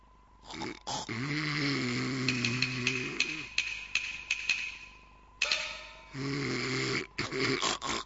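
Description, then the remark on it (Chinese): Loud, drawn-out snoring of a sleeping lady: two long, droning snores with a buzzing, growly tone, separated by rougher, noisy breaths, and no talking. “哎，夫人，夫人，夫人，呀，他都睡着了。”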